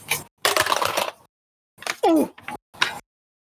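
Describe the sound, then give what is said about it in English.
A twenty-sided die, rolled for a Constitution saving throw in a tabletop role-playing game, clatters and rolls across a table in a dense burst of small rattling clicks, followed by a few short knocks and a brief voiced exclamation; it lands on seven. “Can you make a Constitution saving throw for me, Bubbles? What's that? D twenty.”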